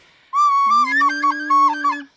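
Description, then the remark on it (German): A flute is blown loudly for about two seconds: a bright, reedy high note that soon warbles and steps up and down, over a steady low humming tone, with no talking. “Eine Flöte, ich weiß nicht, was wir heute brauchen.”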